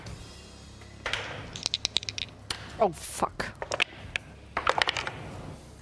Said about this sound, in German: Also ein äh, würfelt mal alle bitte einen äh, Weisheitsrettungswurf.